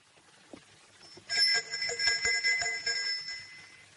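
A doorbell at a house door rings with a bright, sustained metallic chime starting partway in, holding steady with a few clicks and shimmering overtones before fading slightly at the end, as a young woman arrives at the house and rings.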